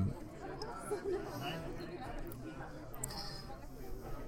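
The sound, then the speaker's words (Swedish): A steady wash of indistinct crowd chatter at the LARM career fair at Linköping University, many voices overlapping with no single speaker standing out. “Vi står på larmdagarna i, på Linköpings universitet eh, och det är därför ni hör lite sol runt omkring.”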